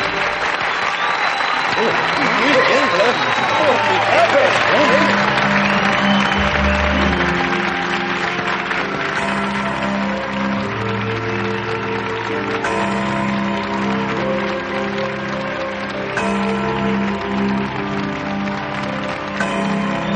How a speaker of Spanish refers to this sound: Dijeron los ocho a la vez, antes de cantar ocho preciosas canciones, que la multitud aplaudió con entusiasmo.